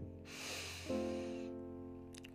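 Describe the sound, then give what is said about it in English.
A long, steady breath drawn in through the nose as part of a breathing exercise, a soft airy rush lasting over a second, over a quiet, sustained musical backdrop. “the first exercise you should be doing breathing exercise just take a moment just take a long breath”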